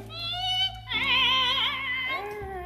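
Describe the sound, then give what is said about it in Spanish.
A swinging hanging inn signboard creaks in a long, wavering, drawn-out squeal that rises and bends in pitch, fairly loud, with no voices around it. “Otra vez la respuesta del chirrido del letrero.”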